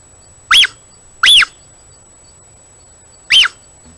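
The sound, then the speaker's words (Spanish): A puma mother calls to her cubs with high, whistly chirps three times, two in quick succession and a third after a pause, each a short rising-and-falling bird-like peep, clear. “Pues este sonido tan tierno lo hace nada más y nada menos que B, un puma, cuyo nombre científico es puma con color.”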